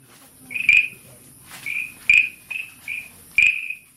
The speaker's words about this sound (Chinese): 在云林县斗南镇与古坑乡交界的一处池塘，住着一群青蛙，它们有着浅黄绿色的鲜艳皮肤，还有白白圆圆的肚子。雄蛙们特别喜欢在下雨或大雨过的夜晚鸣叫，听